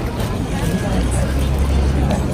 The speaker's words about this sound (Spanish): Ahí está la famosa calle. Chingo el tráfico también. Aquí en Japón casi todo se mueve de tarde, de día casi no.